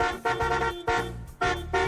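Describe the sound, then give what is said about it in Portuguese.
A car horn honks in a quick series of loud, blaring toots, roughly four bursts in two seconds, with no voices. “Quem gostou da novidade, buzina aí!”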